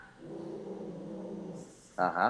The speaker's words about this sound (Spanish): ya, no me asustó y todo, porque hay un perro aquí adentro, ajá.